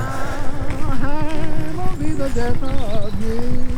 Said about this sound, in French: Je vais mener ma petite enquête. D'où viennent les chevaux